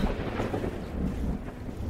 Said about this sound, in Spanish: Hay que apresurarnos. Se viene una tormenta.